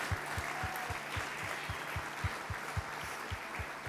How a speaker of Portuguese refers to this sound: Olha lá, gente, glorifica o Senhor com as palmas.